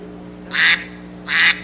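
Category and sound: tool, duck call quacking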